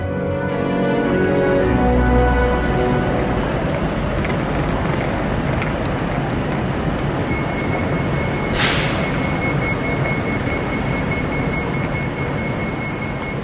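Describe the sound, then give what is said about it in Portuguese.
Busy railway platform ambience at Manchester Piccadilly station, platform 6: a steady low rumble and droning engine hum, a brief sharp hiss of air partway through, then a thin high whine lingering to the end. “Esse som ambiente que vocês estão ouvindo é da estação Manchester Piccadilly, plataforma 6.”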